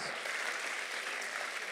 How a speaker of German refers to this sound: Komm, lass uns doch den Leuten, die sich gemeldet haben, einen riesen Applaus geben.